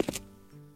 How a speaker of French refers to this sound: C'est quoi ça C'est rien, c'est juste mon ventre qui crie famine.